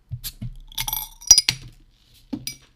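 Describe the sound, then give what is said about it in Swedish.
A small glass bottle of saffron beer from Jack Daw Breweries is handled and opened, with a few bright clinks and a sharp metallic snap of the cap, followed by a quieter clink. Nobody speaks. “Vilket som kommer i en väldigt fin liten flaska.”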